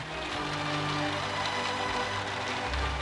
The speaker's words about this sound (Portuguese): E porque há uma árvore em mim, há vento. Há chuva.